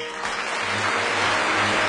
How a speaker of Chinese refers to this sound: 台下的人群听了，不仅没有恼怒，反而鼓掌叫好。